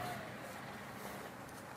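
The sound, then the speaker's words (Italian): An Alfa Romeo V6 engine with Bosch fuel injection idles steadily, a continuous low, even hum with a faint rough texture that holds without revving for a couple of seconds, fairly quiet and with no talking over it. “Questa è l'iniezione Bosch. Sì. Che meraviglia. Il violino di Arese.”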